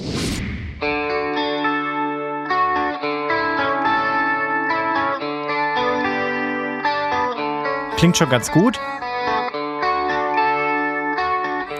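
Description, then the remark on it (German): Software emulating the Red Special electric guitar plays a clean, undistorted tone, a steady run of sustained notes and chords, with a brief swooping pitch slide near the end and a short spoken comment over it. “Das ist quasi die nachgeahmte Red Special im Clean-Modus ohne Verzerrung.”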